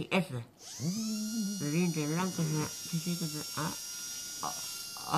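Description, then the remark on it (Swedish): A steady, high-pitched dental drill whines throughout while a voice groans and cries out over it in strained, wavering sounds, as a tooth is pulled out at the dentist. “Och, och det ljudet tycker jag är fint, det här när tanden dras ut, så om vi kan lyssna på det.”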